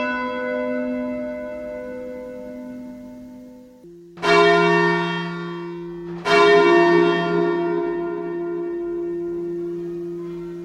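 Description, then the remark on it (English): Church bells ring out in slow, separate strikes, each loud clang blooming into a long shimmering hum that fades before the next bell, with a shift in pitch between them. “Every time you ring, you ought to be able to stop the bell.”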